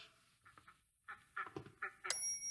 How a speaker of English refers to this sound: Here are the ducks.